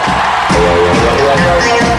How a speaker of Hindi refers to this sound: और अब जोरदार तालियों से स्वागत कीजिए